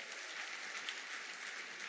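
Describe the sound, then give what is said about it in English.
A church audience claps together in steady, dense applause after a prayer, giving the Lord a round of applause, a continuous wash of many hands with no voices rising above it, holding an even loudness for the whole moment. “Get a Lord a round of applause.”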